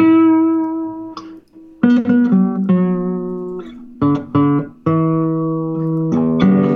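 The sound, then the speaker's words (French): A classical guitar piece by Villa-Lobos played with the thumb: warm, round plucked notes and chords ringing out one after another at an unhurried pace, mostly low and mid-pitched, with no talking. “je peux montrer un petit exemple de sonorité du pouce”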